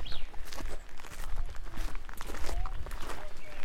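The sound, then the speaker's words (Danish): A steady bustle of many curious tourists walking and milling about, including families with prams and pushchairs and groups of older women friends, with scuffing footsteps and indistinct murmured voices blending into a continuous, moderately loud crowd background. “det, man sådan lige så stille kan høre i baggrunden, det er, at der er begyndt at komme rigtig mange andre nysgerrige turister herned”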